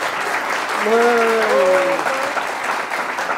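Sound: applause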